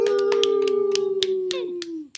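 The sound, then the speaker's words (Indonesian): About nine sharp hand claps at a steady, unhurried pace, sounding over a sustained droning tone that slowly slides lower in pitch and cuts off at the end. “Tepuk tangan dong, biasa dong.”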